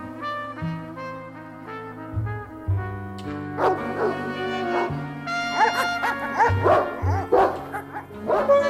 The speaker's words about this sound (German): Die Hunde springen am Maschendraht hoch, bellen wie toll.